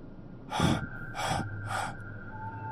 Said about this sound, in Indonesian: Aku capek banget. Aku memungkuk, memegang lutut sambil mengatur nafas.